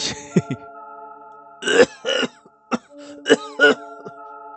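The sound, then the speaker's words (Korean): A string of harsh, hacking coughs from a person after their first inhale of cigarette smoke, about seven bursts in an irregular fit with a throat-clearing quality, over a soft, steady musical drone. “저는 가슴에 연기가 처음으로 들어차자 마구 기침을 해댔습니다.”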